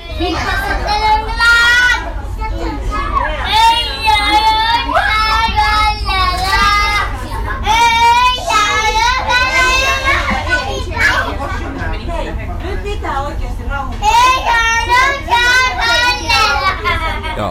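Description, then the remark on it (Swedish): A child shouts and squeals in high, excited bursts while playing in the play carriage of a train, with other children's voices and a steady low rumble underneath throughout, loud. “Och nu vill jag poängtera att det här var under en ganska så här lugn eh, session i, i lekvagnen i det här tåget.”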